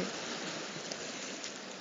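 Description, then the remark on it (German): Sea water in the Maldives lapping and splashing against coral rock in a steady, unbroken wash, moderately quiet, with waves breaking behind it and no one speaking. “Und dahinter, also ihr hört ja das Meer plätschern, dahinter brechen sich gerade die, die, die Wellen, also brechen die Wellen, hört sich auf dem Malediven immer so krass an.”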